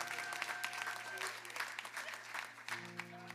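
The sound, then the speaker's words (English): An audience at a Cade Chapel church service claps and cheers steadily, dense applause with scattered shouts and whoops, sustained and fairly loud throughout, with a low organ-like drone running underneath. “Do we have any cheer forgivers in the house?”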